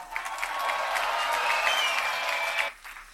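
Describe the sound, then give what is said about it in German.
An audience claps steadily in dense, continuous applause for two performers at a reading, one being Martin Schwab, for nearly three seconds, then it drops off abruptly, leaving a faint tail of scattered claps. “Ich bitte um einen ganz großen Applaus für die beiden.”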